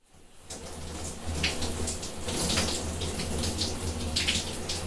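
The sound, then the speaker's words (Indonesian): Water pours and splashes steadily with a broad hiss, sounding like someone bathing in the middle room around midnight, with a low hum running underneath throughout and no voices. “terus udah gitu pas lagi DM DMan suara kamar tengah itu mandi”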